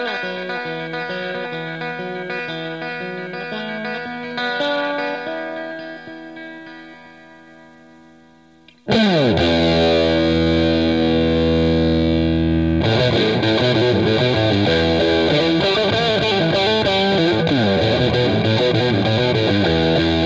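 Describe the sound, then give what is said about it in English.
Distorted electric guitar playing alone on an album after the band fades away. It starts with a moderate run of sustained, wavering notes, then jumps abruptly to a loud, dense wall of heavily overdriven chords that rings on steadily. “And maybe it's just the mood created by the rest of the album, but when the band fades away and he's left playing on his own, it almost sounds like he's wandered off into the woods or into a cave or something.”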